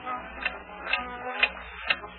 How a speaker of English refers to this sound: Would you look at this, this infernal clock of yours? Clock? What's the matter? Well, look at it. Ten after ten. Why, I just reset it at dinner time. It's gained a full hour in three hours.